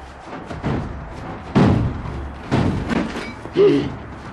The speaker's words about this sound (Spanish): Hicieron pedazos de la puerta. Tiraron el muro.